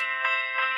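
A mobile phone ringtone plays a short electronic melody, the theme tune of the TV show The Office, bright tonal notes pulsing in a steady rhythm at moderate volume, with no voices over it.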